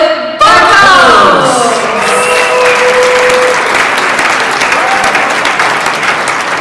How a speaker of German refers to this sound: mit einem riesigen und tobenden Applaus hier auf der Genius Forum Bühne